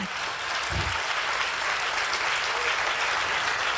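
crowd, loud audience applause

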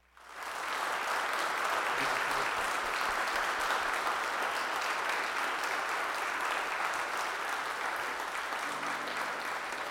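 crowd, applause

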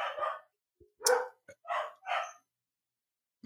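animal, dogs barking

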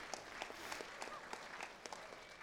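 crowd, audience applauding

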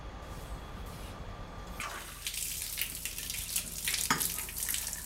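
household object, water running

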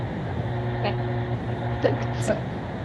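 machine, water pump running

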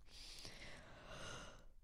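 human body sound, a person yawning

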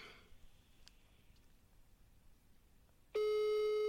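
signal or alarm, telephone ringing tone

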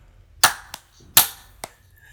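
human body sound, hand clap

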